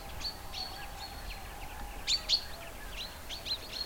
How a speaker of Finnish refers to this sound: Ja aivan kuin kesällä peipon varoitusäänet twink twink twink on metsän tavallisimpia ääniä, niin nyt syksyllä, kun lauma oikein ääntelee peloissaan, niin nyt sitä vasta kuuleekin joukkoon sekoittuu lentoääniä, lentoa, jypytystä.